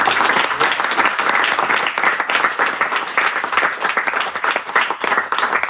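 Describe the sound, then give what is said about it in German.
Sustained applause from an audience for a speaker, many hands clapping densely and steadily for several seconds, fairly loud, with no talking over it. “Okay, ja, dann großen Applaus für dich”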